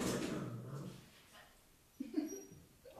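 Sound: dog barking and whimpering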